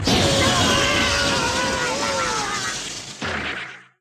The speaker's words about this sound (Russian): Это, это была какая-то легендарная 38-я серия Покемона. Пикачу применил какой-то удар особый, произошел взрыв.